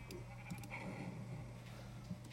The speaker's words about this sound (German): Hier sind so viele Schafe. Wieso sind da so viele Schafe?